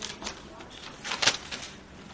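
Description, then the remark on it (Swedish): Pages of a Bible being flipped forward to the Epistle to the Colossians, a run of soft, papery rustles with one louder swish in the middle, fairly quiet, with no talking. “Bläddra framåt till Kolosserbrevet.”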